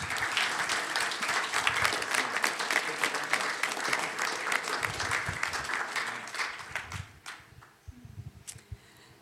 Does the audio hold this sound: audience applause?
yes